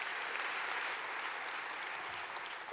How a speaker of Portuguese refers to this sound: Glória a Deus! Glória! Aplaude o Senhor, meu irmão.